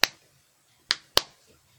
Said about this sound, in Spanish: era, por ejemplo, una palmetada con el lápiz, eh, ese típico que es como cuando apretáis el botoncito, era uno. Para hacer la weá de, ya cuando eran decenas, era de golpeáis la mesa.